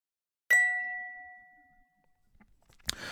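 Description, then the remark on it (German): A single bright quiz-signal ding marking whether an answer was right or wrong, clear and bell-like, struck once and ringing out with a slowly fading tone for over a second before a brief rustle at the end. “schauen, ob die richtige Antwort dabei ist und einmal kurz auf das Signal warten, ob es richtig oder falsch war.”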